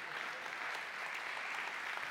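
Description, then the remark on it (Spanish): Steady audience applause, a dense wash of many hands clapping at once, holding an even, moderately loud level for the whole stretch with no voices rising above it. “Denle un aplauso porque los hombres me están viendo así medio curioso.”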